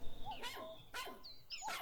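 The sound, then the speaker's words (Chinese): A comical small dog that can dance on its hind legs barks three times in quick, uneven succession, with sharp, high-pitched yaps and a faint whimpering tone between them. No one speaks. “哦，神父，快来看看这只滑稽的小狗，它能颠起后腿跳舞呢。”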